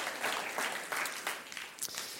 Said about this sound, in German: Давай воздадим Господу еще Lass большой uns Gott einen großen Applaus.